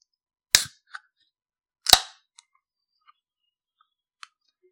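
A Monster energy drink can's tab cracks open in Vienna with two sharp pops about a second apart, the second trailing a brief fizzing hiss, followed by a few faint metallic clicks in otherwise quiet surroundings.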